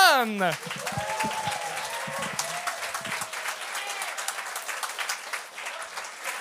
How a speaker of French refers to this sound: Notre premier juge pour le, premier show. Alors, euh, s'il vous plaît, faites un maximum de bruit pour